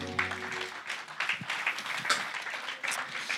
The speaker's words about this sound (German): Vielen Dank, Worship-Team. Lass uns hier nochmal einen Applaus geben.